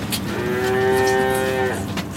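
A single drawn-out calf moo, steady, sounding for over a second against the low background hum of a cattle barn, with no talking.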